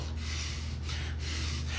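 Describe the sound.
A person imitates a forceful snort through the nose, illustrating the snort of the Lord's nostrils in a Bible passage, a breathy rush of air that lasts about two seconds and swells slightly a few times, with no talking.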